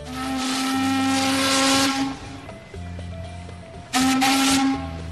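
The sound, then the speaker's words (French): A ship's horn blows a long, loud blast with a hissing edge, pauses, then sounds again briefly, over a steady low engine rumble from the boat. “On peut soit venir en avion, comme moi quand je suis arrivée du Canada, ou venir en bateau, en partant de l'Espagne par exemple.”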